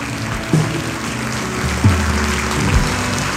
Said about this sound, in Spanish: Póngase de pie, den un aplauso fuerte a Cristo Jesús. Aleluya.